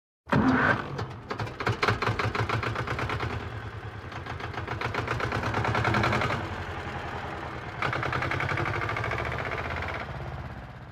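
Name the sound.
tractor engine running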